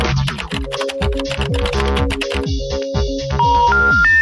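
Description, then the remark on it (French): A short musical jingle built from rapid computer keyboard typing clicks over a bouncy synth bassline, ending with a few rising electronic beeps. Loud, with no voices. “Ah, le bruit du clavier, je l'adore.”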